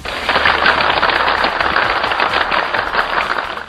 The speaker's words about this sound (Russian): И для всех тех, кто прослушал эти замечательные аплодисменты